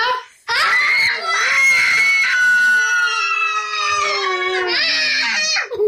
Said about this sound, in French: Bon, on a crié assez fort.